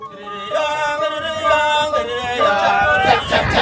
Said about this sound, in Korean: 창문을 열었더니, 어? 리조트 앞마당에서 전통 공연이 한창이네요.